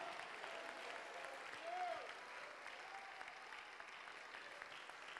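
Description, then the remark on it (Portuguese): A church audience applauds steadily, a dense wash of clapping that holds an even level throughout, with a brief tonal cry rising above it near the middle. “Aplaude forte.”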